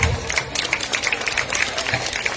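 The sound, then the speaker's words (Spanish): An audience applauds to welcome and encourage an arriving speaker, a dense, continuous patter of many hands clapping at once, steady and fairly loud for the whole moment with no voices standing out. “Fuerte las palmas para animarle, por favor.”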